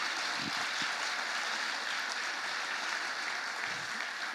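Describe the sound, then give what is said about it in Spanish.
An audience claps steadily throughout in applause for Jesus, a dense, continuous wash of applause at moderate volume, with no speech over it. “Dale un aplauso a Jesús.”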